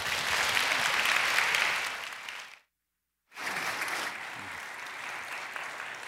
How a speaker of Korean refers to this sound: 박수로 우리 환영하겠습니다.